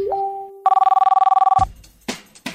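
A telephone bell rings in one loud, rapid trill of about a second, preceded by a short steady tone that rises in pitch and followed by a few brief, noisy bursts.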